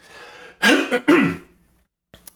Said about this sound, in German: Entschuldigung, ich muss mir noch räuspern.